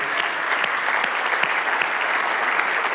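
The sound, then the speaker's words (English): A church audience breaks into steady, sustained applause, many hands clapping in a dense, even wash of sound with no voices standing out. “And now give yourselves a round of applause for making that happen because he's doing it through you, church.”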